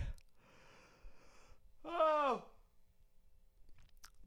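human body sound, yawning

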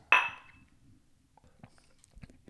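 household object, glasses clinking

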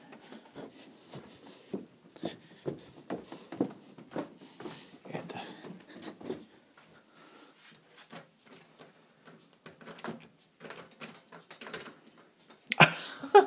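household object, front door being opened

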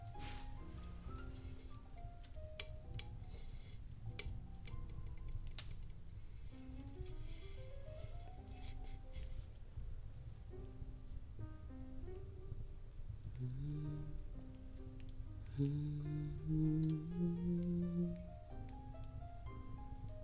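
household object, fireplace burning and crackling

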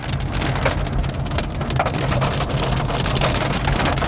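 nature, heavy rain falling

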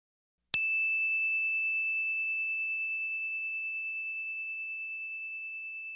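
signal or alarm, bell chime

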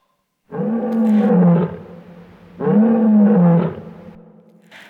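animal, bear growling

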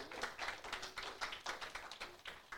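crowd, audience clapping

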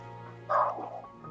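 animal, small dogs barking

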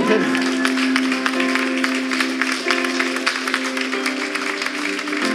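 crowd, audience clapping

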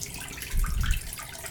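household object, water running

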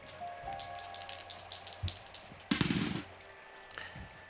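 two dice being rolled

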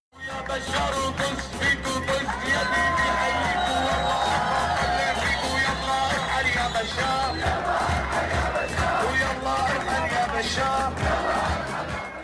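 crowd, crowd cheering

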